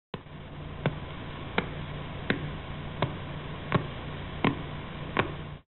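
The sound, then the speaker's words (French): Sharp, evenly spaced ticks, about eight in under six seconds, pulse steadily through a constant bed of crackling radio static: a pulsar's very regularly pulsing radio signal, detected with a telescope, converted into sound. No one speaks. “donc là, ce que vous entendez, c'est la retranscription en ondes sonores de ce signal”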